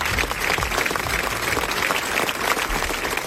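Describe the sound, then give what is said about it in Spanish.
Steady, dense applause from a sizable crowd, many hands clapping continuously at an even level throughout, fairly loud. “Aplausos”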